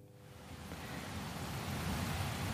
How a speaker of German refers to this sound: Der Regen wird immer stärker und in die Trichter der Blasinstrumente der Kapelle fließt das Wasser.